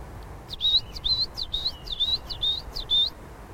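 A tit sings a quick run of about six high, thin whistled notes in a steady repeating rhythm, clear, with a faint low rumble of background noise and no voices.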